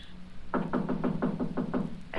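impact, knock

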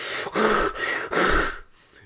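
human body sound, rapid

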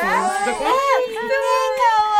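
baby fussing and crying

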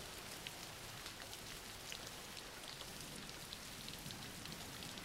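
nature, background rain

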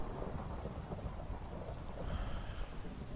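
nature, rain and thunder

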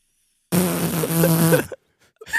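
human body sound, fart

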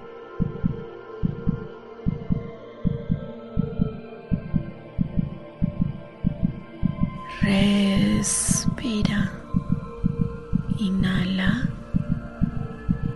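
human body sound, heartbeat

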